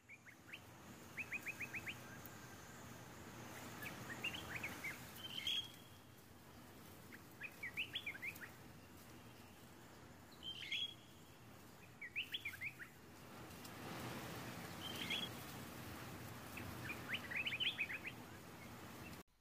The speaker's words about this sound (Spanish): El bosque al atardecer se llena de sonidos y puede asustarnos, pero solo indica que está lleno de vida. Si cerráis los ojos y prestáis atención, seguro que podremos escuchar el sonido de algún pájaro.